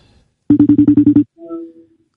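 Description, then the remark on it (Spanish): A phone call ringing tone as someone calls again after an unanswered attempt: a fast burst of about eight rapid, evenly pulsed beeps at one steady pitch, followed by a softer, sustained tone. No one speaks. “Espera, voy a llamar de nuevo.”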